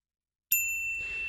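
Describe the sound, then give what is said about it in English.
A single bright ding rings out suddenly after silence, its clear tone sustaining and slowly fading like a notification chime, heard alone. “Okay, that's also one of my notification sounds.”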